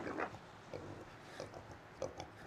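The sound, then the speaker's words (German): Pigs grunt in short, irregular snorts, a handful of low rough bursts spaced unevenly over a couple of seconds, fairly quiet, with faint background noise and no one talking. “Die Schweine brauchen Wasser.”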